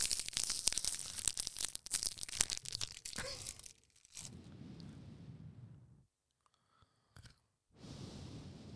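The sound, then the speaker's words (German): Loud crinkling and tearing of pages of the Bild newspaper for about four seconds, followed by softer rustling handling of paper, a brief pause, then more rustling. “Heute haben wir die Bildzeitung.”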